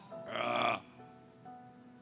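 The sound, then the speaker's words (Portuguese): A person voices a single loud, drawn-out belch imitating a cow burping, lasting about half a second, followed by a low, quiet hum. “Ele arrota, sabia? E vaca arrota.”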